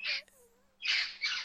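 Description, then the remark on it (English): Harsh, raspy squawks from a flock of parrots ring out in three loud bursts outdoors by a porch in Pasadena, with a faint whistling call in the gap between them. “There's there there's urban legends about like a flock of escaped parrots that fly around.”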